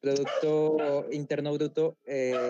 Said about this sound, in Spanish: perdón por el perro que está ladrando de fondo, es el vecino. Eh, es el perro interno del vecino. Es el perro, es el perro eh, facho del vecino.